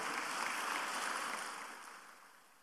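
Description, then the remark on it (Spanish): An audience applauds for the Lord in the afternoon, a dense, steady wash of clapping that holds level, then gradually fades away over the last second or so; no voices are heard. “Dele un aplauso al Señor, por favor, en esta tarde.”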